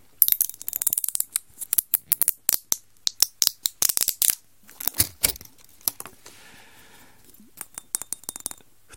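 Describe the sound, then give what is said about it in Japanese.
Rapid clicking and crackling as the sealed cap of a newly bought gin bottle, labelled '6' gin, is twisted open for the first time, a dense run of sharp ticks followed by a few sparser clicks, with no one talking. “これは今ね、たった今開封しますね。”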